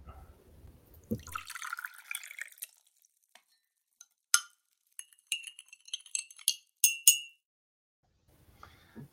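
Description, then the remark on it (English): A soft slurping sip of a drink is followed by a scattered run of bright, ringing glass clinks and small drip-like taps, fairly quiet with no talking. “Now we're going to take a sip”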